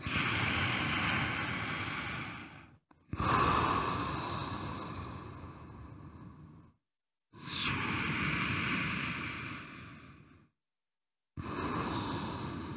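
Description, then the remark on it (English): Long, slow, deep yogic breaths drawn in and pushed out during yoga practice, each lasting several seconds with brief pauses between, a soft oceanic rushing sound with no talking. “filling your body with breath, but not in an assertive or disruptive way, just allowing your breath to fully experience itself”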